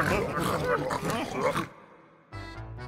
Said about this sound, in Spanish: ¿A poco no quedan bien enchilados cuando al fallar un nivel pueden escuchar escuchar las risas de los puercos burlándose de su mal desempeño.